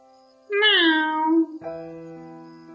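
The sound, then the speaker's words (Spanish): The café's cat, called Doña Moca by the vendor and Panela by the owner, lets out one drawn-out, fairly loud meow lasting about a second. A steady tonal hum continues quietly afterward. “Esta es la gata de la cafetería.”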